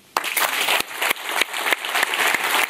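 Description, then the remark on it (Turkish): Sustained audience applause at a UEFA ceremony announcing Turkey and Italy as hosts of Euro 2032, as the two countries' delegations come on stage: a dense, steady wash of many hands clapping with a few sharper individual claps standing out, fairly loud throughout with no voices. “Alkışlar eşliğinde sahneye çıkan iki ülke heyetleri UEFA Başkanı ile basın mensuplarına poz verdi.”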